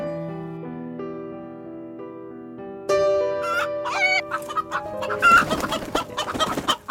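animal, hen clucking

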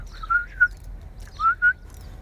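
human body sound, person whistling

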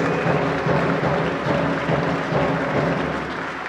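crowd, crowd applause

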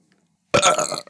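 human body sound, burp

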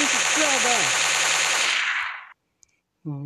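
impact, gunfire

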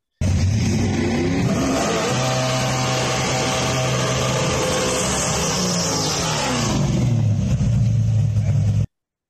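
vehicle, car engine revving

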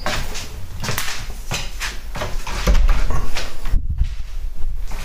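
household object, door being closed

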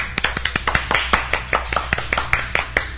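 crowd, applause

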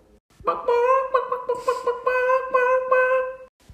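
animal, chicken clucking

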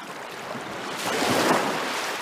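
nature, ocean waves

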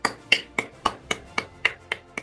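crowd, clapping

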